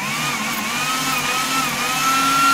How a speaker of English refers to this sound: And what, what about this for a then, chainsaw sound?